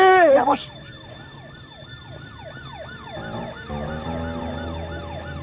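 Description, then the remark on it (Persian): A police siren wails in rapid, repeated up-and-down sweeps, steady, following a brief loud burst at the start, with a low engine rumble growing underneath; the police are in pursuit. “دنبالتن پلیس”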